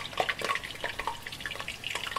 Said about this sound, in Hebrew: זה רעש של שמן מבעבע, אנחנו צריכים למצוא סוגניה. או לביבה, משהו שמטוגן בהרבה שמן.